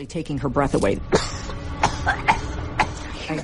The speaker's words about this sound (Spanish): Empezó a darle un ataque de tos hasta el punto de darme miedo porque parecía que no podía respirar.